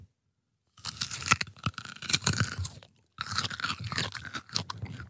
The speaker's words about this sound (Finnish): Ja ääni. Syöminen kuulostaa tältä.